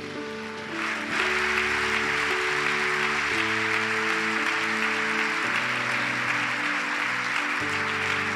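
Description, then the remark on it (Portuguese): A church audience breaks into sustained, loud applause for Jesus, dense clapping swelling after the first second and continuing steadily over a held, shifting organ or keyboard chord progression beneath. “Vamos aplaudir a Jesus por isso.”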